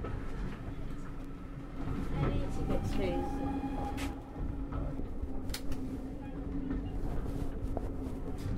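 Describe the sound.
A steady, rumbling clatter from inside a steam train carriage on the first service of the day, rolling slowly along the tracks through the countryside of the Forest of Dean with about 30 passengers aboard, with a low hum and occasional knocks and squeaks, and indistinct voices murmuring faintly in the background.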